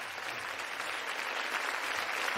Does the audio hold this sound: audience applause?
yes